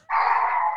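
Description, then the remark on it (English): A small dog lets out one drawn-out, high-pitched excited bark or yelp, loud, with no talking around it. “That's a dog. No, I'm sorry.”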